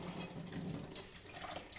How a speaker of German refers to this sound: und im Hintergrund irgendwie das Plätschern.